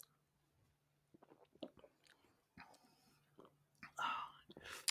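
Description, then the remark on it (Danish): Quiet mouth sounds of someone chewing a bite of food, with soft irregular crunches and smacks, plus a brief breathy whisper-like burst near the end. “Den noget, jeg lige at tage en bid ja. af.”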